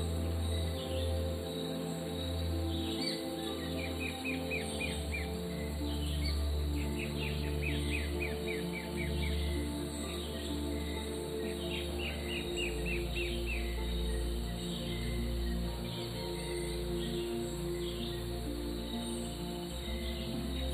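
A dense tropical rainforest chorus early in the morning: birds repeatedly chirp and trill in short bursts over a steady, continuous hum of insects, with no voices present.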